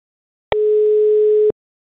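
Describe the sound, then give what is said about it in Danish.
A single telephone ringing tone: one steady, fairly loud electronic beep lasting about a second, starting and stopping with soft clicks, surrounded by silence and no voices. “Ham ringer vi til.”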